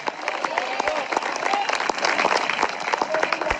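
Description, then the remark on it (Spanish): An audience bursts into steady, dense applause for Christ of glory, many hands clapping at once for several seconds, with a few voices calling out faintly beneath the clapping. “Dele fuerte ese aplauso si es para el Cristo de la gloria.”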